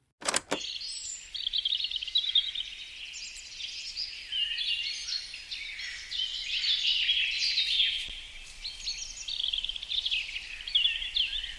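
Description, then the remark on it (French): A dense chorus of birds chirps and trills continuously in the Bois de Halle, the blue forest in Belgium, many overlapping calls at steady moderate loudness, with leaves rustling in the wind and no voices present. “Vous avez entendu les gazouillis enchanteurs des oiseaux En écoutant bien, on distingue même les feuilles qui dansent dans le vent.”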